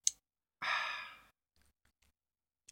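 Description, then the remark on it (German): A voice imitates the satisfied, breathy 'ahh' someone lets out at the end of loudly drinking: one loud exhaled sigh lasting under a second, followed by faint mouth clicks. “Und mich, wenn Leute noch so laut trinken, könnte ich ausrasten, ey. Und dann am Ende so.”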